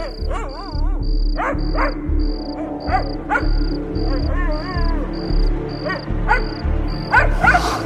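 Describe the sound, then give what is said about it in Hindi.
A pet dog named Pomi, left outside on the veranda at night, barks repeatedly at uneven intervals, some barks drawn out into whiny yelps, over a steady pulsing chirp of crickets and a low background rumble. “मीरा को इतना तो समझ आ ही रहा था कि ये पॉम ही भौंक रहा था लेकिन दिखाई कोई नहीं दे रहा था”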